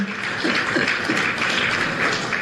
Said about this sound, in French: Applaudissez-le, notre papa national.